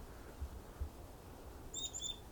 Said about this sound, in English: It seems to be a lone bird, something that doesn't happen with chickadees very often.